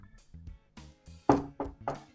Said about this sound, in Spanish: pum, pum, pum, tocan la puerta.